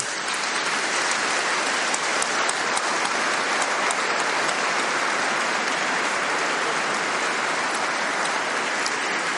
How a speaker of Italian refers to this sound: vorrei che tutti quanti noi facessimo un applauso, perché se lo meritano veramente.